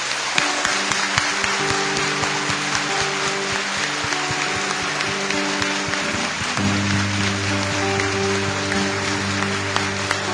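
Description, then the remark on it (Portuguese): An audience bursts into a big, loud, sustained round of applause offered to the Lord in jubilation, a dense steady wash of many hands clapping throughout, with held keyboard chords sounding underneath that shift to a new chord partway through. “Então nós vamos fazer o seguinte, nós vamos fazer, nós vamos dar agora uma salva de palmas bem grande, tá bom?”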